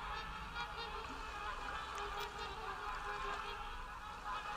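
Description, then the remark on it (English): Wild geese honking faintly in repeated calls, layered over a steady wash of background noise, with no voices present. “They sound like wild birds or geese.”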